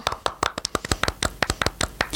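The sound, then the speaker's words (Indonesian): A few people clap their hands to welcome 4,700 new university students, quick irregular claps overlapping into brief applause lasting about two seconds, with no talking. “kita boleh tepuk tangan dulu dong Raps semuanya.”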